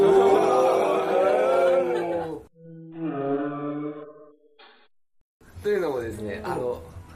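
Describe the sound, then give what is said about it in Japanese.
A person speaks, then gives a drawn-out, low, mooing imitation of a giraffe's call lasting about two seconds, before talking resumes. “キリンはですね、牛の仲間で、モートなのらしいんです。”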